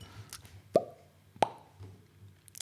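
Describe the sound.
Two sharp mouth-made pops, about half a second apart, fairly loud, a voice imitating the small bang of an oxyhydrogen test in a test tube, with quiet breathy sounds around them.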